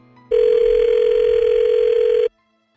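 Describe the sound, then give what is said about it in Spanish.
A single steady electronic phone ringing tone as a call is being placed, one unbroken burst lasting about two seconds, clear and fairly loud, then it cuts off into silence. No voices are heard. “A ver, ahí, le estamos marcando, nomás no haga ruido, compa, ¿eh?”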